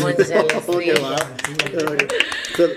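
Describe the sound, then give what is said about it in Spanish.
A small group breaks into scattered, uneven applause, sharp claps overlapping while several voices talk and murmur over them throughout. “Yo quisiera pedirle a mis compañeras que antes de seguir, Dios mío, yo que lo conozco desde hace tanto y he escuchado tanta charla y conferencia suya, yo creo que tenemos que darle un aplauso,”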